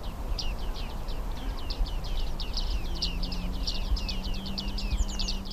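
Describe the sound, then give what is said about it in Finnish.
A flock of bearded reedlings gives a steady stream of short, high, pinging calls from the wide reed beds near Porvoo, Finland, several birds overlapping over a constant low rumble of wind and background noise. “Viikon luontoääni: Viiksitimali”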